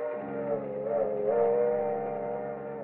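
A train rolls along with a steady, droning mechanical rumble, its humming tone swelling and rising slightly as it picks up speed, leaving Kansas City. No voices are heard.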